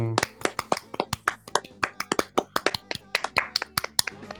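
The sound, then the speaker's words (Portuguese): A short round of applause from a small group: quick, sharp claps in an uneven, overlapping rhythm, steady and fairly loud for about four seconds. “Uma salva de palmas.”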